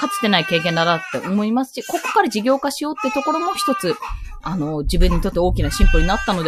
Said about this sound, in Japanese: すいません、息子の声が入ってますね。